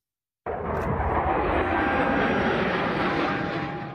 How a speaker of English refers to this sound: Yeah, we know that sound. That is the U.S. Air Force Thunderbirds. They're going to roar across the sky Sunday. This is them getting in a few practice rounds ahead of the big game.